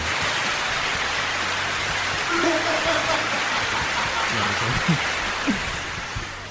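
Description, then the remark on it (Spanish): Steady applause, a dense, continuous wash of many hands clapping that holds at an even level for several seconds, with faint voices murmuring underneath. “Déjalo, déjalo si querés los aplausos, déjalo si querés porque ayuda, ayuda.”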